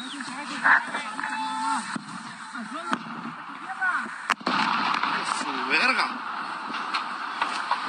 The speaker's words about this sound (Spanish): Impresionante, impresionante el sonido de la explosión